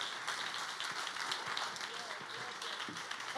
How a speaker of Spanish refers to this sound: Si le va a dar el aplauso, escúcheme.